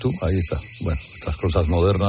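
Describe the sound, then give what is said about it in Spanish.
A smoke alarm in a small studio, set off by smoke from an incense burner, sounds under people talking, a thin, high-pitched electronic tone that persists faintly in the background throughout. “¿Está sonando la alarma todavía?”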